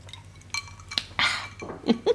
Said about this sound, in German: Ich trinke hier mal zwischendurch einen Schluck Spezi.